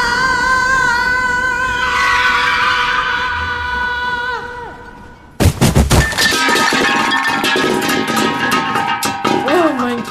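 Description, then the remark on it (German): A mine cart rolls down a mine tunnel, its wheels screeching in high, sustained metallic whines that sag in pitch, then breaking into a loud, jangling clatter of rattling metal over a continuous rumble. “Sei nicht albern, da kommt eine Lore den Stollen runter.”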